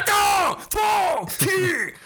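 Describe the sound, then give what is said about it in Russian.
A voice imitates kung fu battle yells like those in the final fight of a Bruce Lee film: three loud, drawn-out cries in quick succession, each starting high and sliding downward in pitch, with short breaks between them. “вот это школа громких криков кунг-фу.”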